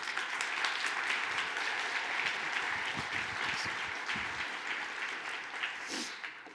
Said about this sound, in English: Why don't you give these students a round of applause and thank you so much for helping.